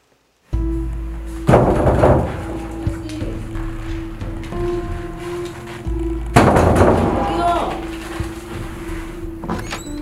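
Two loud bursts of knocking on a door, several seconds apart, each with a few sharp raps, over a steady low musical drone with no talking.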